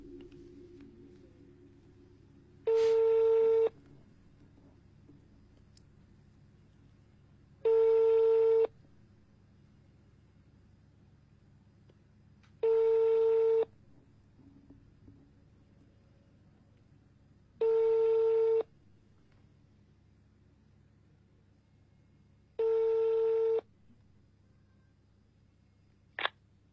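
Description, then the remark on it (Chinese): A telephone ringback tone repeats five times, each steady electronic burst lasting about a second, separated by roughly four seconds of quiet over a faint low hum, as a Nanyang, Henan radio show calls a young man's girlfriend on air. “好，接下来我们给他的这个女朋友打一个电话”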